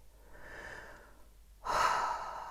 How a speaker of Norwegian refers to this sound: Og bare puster.